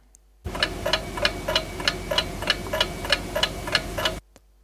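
An alarm clock ticks steadily and close by, about a dozen crisp, evenly spaced ticks over a low constant hum, starting and stopping abruptly with no voices.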